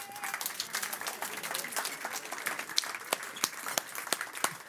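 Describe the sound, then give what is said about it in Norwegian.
An audience applauds a group of children steadily, a dense patter of many hands clapping at moderate loudness, with a few sharper individual claps standing out toward the end. No one speaks. “Så vi gir alle de barna en applaus.”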